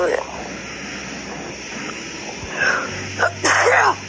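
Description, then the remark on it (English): A single sneeze bursts out near the end, preceded by a quick sharp intake of breath, over a steady low engine drone like the inside of a moving vehicle. “Bless you.”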